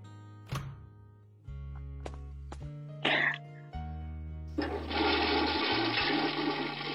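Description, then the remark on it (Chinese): A few scattered thunks and clicks, then a home toilet, behind the door beside the washing machine on the balcony, flushes with a loud, steady rush of water that swells and keeps roaring through the final seconds. “哦，我就想知道你你家厕所在哪？”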